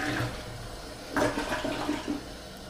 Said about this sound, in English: Courtesy flush, bro.